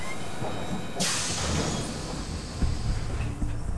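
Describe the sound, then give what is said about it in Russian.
A small, old, rusty, angular train-like vehicle (an antarakhot) rumbles low and steady as it stops at a boarding platform crowded with workers, then lets out a sudden loud burst of hissing air, like brakes releasing, before clanking and rumbling on. No one speaks. “И перед нами остановился небольшой, видавший виды антарахот. Он был настолько старый, ржавый и угловатый, что я побоялся, не развалится ли он по ходу.”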